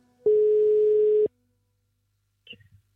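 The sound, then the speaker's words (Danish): A single ringing tone from a phone placing a call to an institution during its fixed telephone hours: one steady, loud, one-second beep, then silence and a brief faint noise near the end. “sad vi klar med telefonen i hånden på den faste telefontid, hvor en rigid institution tillod os at gøre vores arbejde.”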